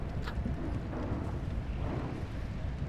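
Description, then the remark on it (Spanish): A steady, rumbling whir from a spinning homemade contraption, low and continuous with a slight rhythmic wobble, moderately loud, with no voices. “El sonido de algo dando vueltas, que viene de esto que han hecho aquí.”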